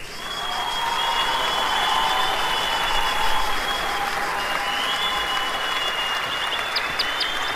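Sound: audience cheering and applause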